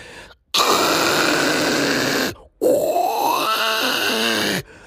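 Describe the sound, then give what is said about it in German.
A voice imitates loud snoring: two long, rasping, throaty bursts separated by a brief pause, the second rising and rattling before cutting off. Loud, no talking. “Äh, wenn ich dann mal so nach so diversen Abenden neben ihm im Bett gelegen habe und gepennt habe, der schnarcht auch so.”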